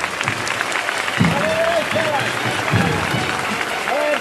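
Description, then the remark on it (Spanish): Sustained applause from neighbours outdoors as a procession advances through a fenced-off area before Avenida Pedro Romero, dense and steady throughout, with scattered voices and a few calls rising above the clapping. “Y aquí el aplauso, aquí el aplauso de, los vecinos.”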